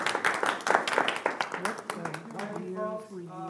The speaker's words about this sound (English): Can we give another round of applause to Rabbi?